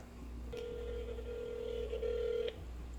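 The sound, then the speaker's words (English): A phone rings with a single sustained electronic tone lasting about two seconds, fairly clear, over a low steady background hum. No one speaks. “Um, you just got a phone call from him.”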